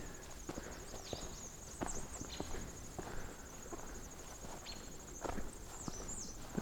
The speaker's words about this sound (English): Just the redstarts vocalizing.